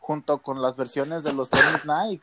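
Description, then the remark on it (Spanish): A man speaks quickly when a single sharp, loud sneeze bursts out mid-sentence, and then he carries on talking right after it. “¡Salud! ¡Salud!”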